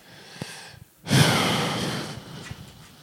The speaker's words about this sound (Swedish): Nu ska vi göra så här. Ta, eh, andas in djupt.